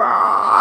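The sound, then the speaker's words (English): A single drawn-out, throaty croak voiced by a person imitating a raven, loud, held steadily for under a second before cutting off. “And if you walk under a tree and there's a raven there, he'll go,”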